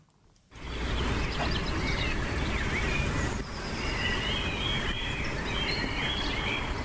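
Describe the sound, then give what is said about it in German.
Birds chirp and trill outdoors on a sunny spring day in Lingen, against a steady, fairly loud wash of wind or traffic noise, the calls light and overlapping throughout. No one speaks. “Die Tage werden länger, die Vögel singen und die Sonne lacht.”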